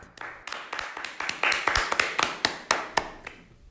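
A short burst of applause: sharp, steady hand claps at a quick, even rhythm, fairly loud, with a faint murmur underneath, tapering off at the end.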